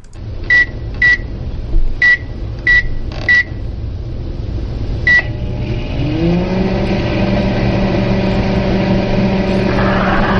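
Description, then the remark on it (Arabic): A microwave oven timer gives six short, sharp electronic beeps at uneven intervals, then the oven starts with a low hum that swells and keeps running steadily to the end. “آه، آه، صوت تايمر مكويف صوت مكويف”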